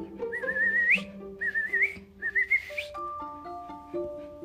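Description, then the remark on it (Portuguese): Someone whistles three short, warbling rising phrases in a row, imitating a bird's call, clear over soft sustained background tones. “E quando ele olhou para trás, o passarinho fez para ela.”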